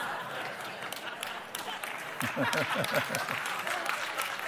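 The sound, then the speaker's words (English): Steady applause from an audience, a dense wash of many hands clapping, with a voice rising over it partway through. “Are you clapping my wife?”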